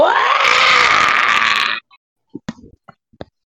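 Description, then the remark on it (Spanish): A person vocally imitates a terrifying scream: loud, harsh and drawn-out, lasting under two seconds, rough and strained like a monster's shriek, followed by a few short clicks and breathy sounds. “de repente escuchan un grito aterrador, intimidante, espeluznante, escalofriante y todo lo que termine en ante, eh, el cual suena más o menos.”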